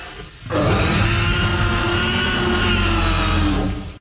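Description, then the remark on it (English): A deep, guttural roar blended from baby elephant, tiger and alligator sounds erupts after a brief quiet moment and holds loud and sustained for over three seconds, a growling, layered bellow with rumbling low tones and harsh upper texture. “That's a combination of a baby elephant.”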